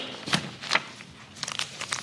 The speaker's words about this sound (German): Sie machten eine Kunstpause. Das stimmt, um mal einen kurzen Schluck Wasser zu trinken.